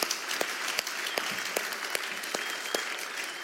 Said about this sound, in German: Gebt ihnen doch nochmal einen ganz großen Applaus.